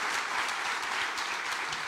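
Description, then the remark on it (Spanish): Steady applause from a group for some young people, a dense continuous patter of many hands clapping at an even, fairly loud level throughout, with no voices standing out. “Amén, un aplauso para esos jóvenes.”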